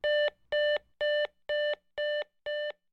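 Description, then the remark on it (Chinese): A telephone busy tone after a kidnapper hangs up the phone: six steady, even beeps plus the start of a seventh, a mid-pitched electronic tone pulsing on and off about twice a second, with no voices. “绑匪打断了阿明爸爸的话，并且挂上了电话。”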